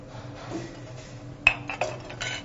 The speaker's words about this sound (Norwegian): Da skal vi sette i gang med bearnéssausen. Reduksjonen har gått vesentlig ned. Da siler vi denne.